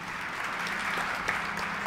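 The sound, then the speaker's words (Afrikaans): A church audience claps steadily to welcome people watching online, a dense, even wash of many hands applauding at once with no pauses, moderately loud and sustained throughout. “Wil julle net vir die mense aanlyn 'n lekker hande klap gee en sê baie welkom net.”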